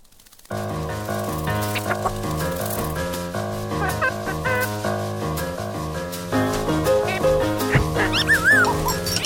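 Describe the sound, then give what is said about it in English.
Snoopy, the cartoon dog, barks and whimpers in the official Peanuts trailer over busy, steady music that runs throughout, with a few high, sliding yips and whines near the end. “Unfortunately, this trailer doesn't have a lot of dialogue because it's Snoopy and the birds.”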